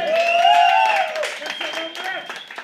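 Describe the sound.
Audience applause, a steady patter of many hands clapping, mixed with voices calling and cheering over it for a few seconds.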